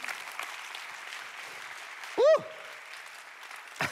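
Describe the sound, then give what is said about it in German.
An audience claps for God steadily in a dense, even wash of applause for several seconds, with a short rising cheer briefly standing out partway through. “Lass uns für das Gott einen Applaus geben.”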